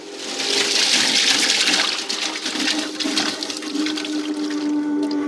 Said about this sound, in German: Je länger man jetzt diesen Holländer laufen lässt, umso feiner werden die Papierfasern gemahlen und verändern so die Charakteristik von Papier.